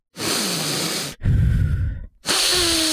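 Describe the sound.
A voice imitates the heavy, hissing breathing of a person who had taken LSD: three loud exhales and inhales in a row, each about a second long, breathy and raspy with a brief pause between.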